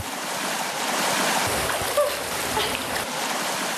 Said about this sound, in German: Pilipets, ein Dorf mitten in den Karpaten in der Westukraine. Nicht weit entfernt tost ein Wasserfall. Der wilde Gebirgsfluss bahnt sich seinen Weg durch den Ort.